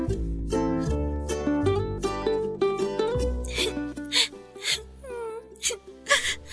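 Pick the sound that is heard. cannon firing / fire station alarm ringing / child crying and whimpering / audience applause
child crying and whimpering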